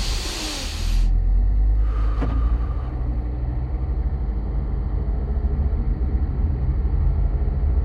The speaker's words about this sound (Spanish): 18 de junio por la noche... ...un coche circula por la oscura carretera de Ohio...